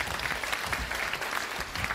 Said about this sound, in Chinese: 好，我们先掌声有请我们的演员上台，好吗？